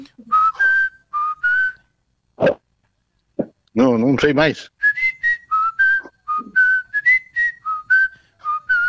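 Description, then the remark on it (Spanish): Someone whistles a song melody in clear, steady notes, phrase after phrase, fairly loud. A voice briefly speaks partway through before the melody resumes. “Continúa el silbido.”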